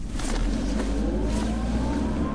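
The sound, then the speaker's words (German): A taxi's engine rumbles loudly in Berlin, its pitch rising steadily as the vehicle accelerates away. A continuous mechanical drone with no voices over it. “Los, alle rein in die Kutsche. Oh, hey, Max, mach dich nicht so dick.”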